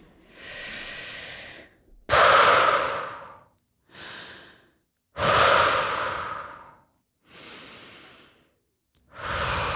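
A freediver slowly fills the lungs with air: slow, deep breaths drawn in and let out in long airy waves, a few strong inhalations alternating with softer exhales in a steady rhythm, with no talking.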